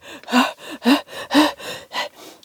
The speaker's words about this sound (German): Da kam auf einmal der Wächter vom Museum angerannt, außer Atem natürlich.